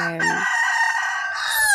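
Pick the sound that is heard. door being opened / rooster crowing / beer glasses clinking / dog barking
rooster crowing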